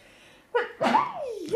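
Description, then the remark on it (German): A single sharp sneeze with a quick intake of breath before it and a falling, voiced tail afterward, close to the mic and fairly loud. “yeah, yeah, Gesundheit.”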